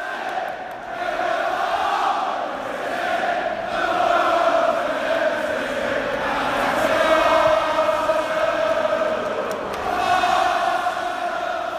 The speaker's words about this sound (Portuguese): E em um espaço de seis minutos, teve o gol do Salah e três gols do Arsenal virando a partida para 3 a 2. Olha a reação da torcida do Arsenal.